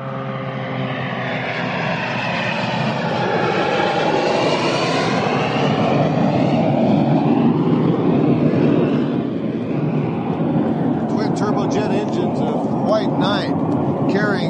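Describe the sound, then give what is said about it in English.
The White Knight aircraft, carrying SpaceShipOne, roars past toward the sky at sunrise over the high desert, its whining engine tones sweeping up and then down in pitch as it goes by, leaving a steady, broad rumble that lingers for several seconds. “Either by coincidence or due to Burt Rutan's careful planning, the White Knight would scream past us toward the sky just as the sun peeked over the distant hills.”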